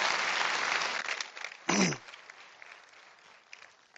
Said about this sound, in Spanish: Te quiero pedir que me lo ayudes a recibir con un gran aplauso